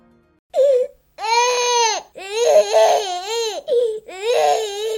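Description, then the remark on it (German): A very young infant wails in several loud bursts separated by short gasping pauses, the strained cries rising and falling in pitch with no one talking. “Ich meine, ein ganz kleiner Säugling, wenn er Kummer hat, dann fängt er an zu schreien.”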